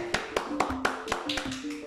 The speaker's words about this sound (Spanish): Quiero que se escuche el aplauso, por favor, el público que aplauda.